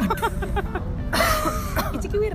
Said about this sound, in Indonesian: Aduh, ada yang batuk-batuk takut virus. Bercanda.